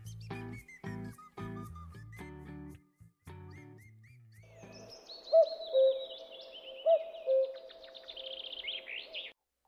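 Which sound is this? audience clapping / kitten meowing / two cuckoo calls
two cuckoo calls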